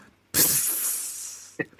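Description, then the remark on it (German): A voice imitates the hot sizzling hiss of a lip touching a very hot glass: one loud, sustained breathy hiss lasting about a second, trailing off before two brief voiced sounds. “Das hat richtig gezischt.”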